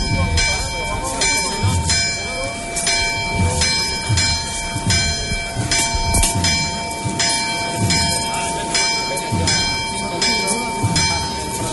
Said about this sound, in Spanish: Una revirada muy lenta la que se efectúa en estos instantes en el que nos acompaña el replicar de la campana de la parroquia de San Sebastián.